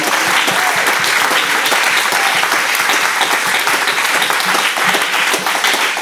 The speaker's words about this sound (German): Geben wir doch dem Heiligen Geist, Jesus, einen Applaus und auch dir